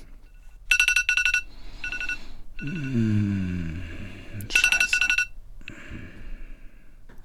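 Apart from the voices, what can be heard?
alarm clock ringing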